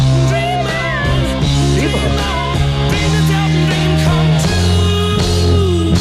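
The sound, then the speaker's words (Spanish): A loud, full-band 1970s rock song plays throughout, with a high, strained vocal wailing and sliding above steady bass and driving guitars. “Qué tremenda canción, impresionante.”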